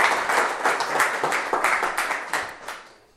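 An audience applauding a man: dense, overlapping hand claps in a steady burst lasting a few seconds, loud, then tapering off toward the end. No one speaks.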